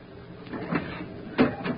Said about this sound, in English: Well, a storm was brewing on the 42nd day of the journey, and I was called into the captain's cabin. I opened the door.